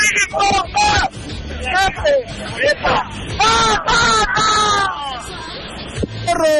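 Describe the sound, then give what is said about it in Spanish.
A loud crowd of voices shouts together in a rowdy group cheer at Cuescomate, celebrating 18 years of Línea Deportiva, overlapping yells rising and falling in bursts for several seconds, energetic. “y nos vamos todos con el grito, dice.”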